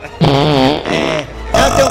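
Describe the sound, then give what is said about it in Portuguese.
A voice imitates farting with three buzzing, wobbling raspberry bursts in quick succession, fairly loud, with a short pause before the last one. “Ou pô, pra peidar”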